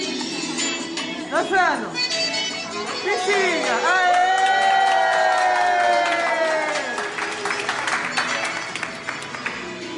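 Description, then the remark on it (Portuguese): Hospital nurses and doctors applaud and cheer nonstop for the whole stretch as a discharged patient leaves the hospital in a wheelchair, loud whoops and rising shouts riding over steady clapping. “ao deixar o hospital, ainda em cadeira de rodas, foi homenageado com palmas e música, adivinha qual, né?”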